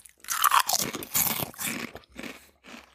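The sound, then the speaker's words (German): Someone crunches a hard cough drop between their teeth, about six loud, gritty bursts in an uneven chewing rhythm, with no talking. “Es ist auch so, mein, mein Hustenbonbon hat sich äh, jetzt aufgebraucht und die Wirkung lässt nach.”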